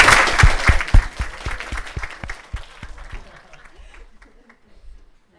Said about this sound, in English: So just really quickly, a clap for that.